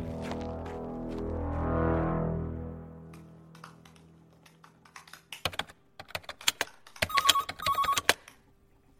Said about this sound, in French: Bah, qu'est-ce que t'attends Décroche euh, Je sais pas qui c'est, moi. bah, bah, décroche quand même ah, Je décroche pas si je sais pas qui c'est.